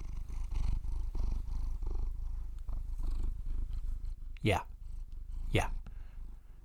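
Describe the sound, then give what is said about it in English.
A male cat purrs into the microphone in a steady, low rumbling rhythm that continues throughout, broken late by two brief sweeping sounds, while a person says a single word. “Uh, update on the kitty situation. Uh, he is back and apparently feels sorry for walking out at the beginning.”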